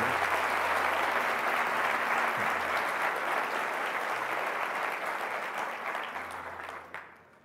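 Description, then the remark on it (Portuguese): Loud, sustained applause from an audience during a sermon, clapping for God, a dense wash of many hands clapping that holds steady for several seconds before gradually thinning and fading out at the end. “Pode ser mais forte esse aplauso, é para ele.”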